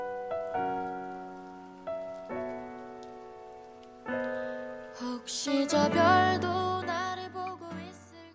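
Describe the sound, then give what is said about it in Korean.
A steady wash of rain sounds pattering softly beneath gentle sustained piano chords in the rain version of an emotional song, with a singing voice and fuller accompaniment entering partway through over the continuing rainfall. “레인 버전이었고요. 정말 비가 내리는 그런 느낌이 들지 않습니까?”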